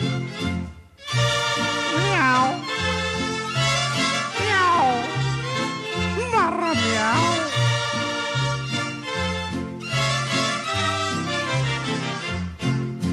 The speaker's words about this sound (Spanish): Con esta triste y maullida serenata, la noche es una lata, no duerme el más gallón.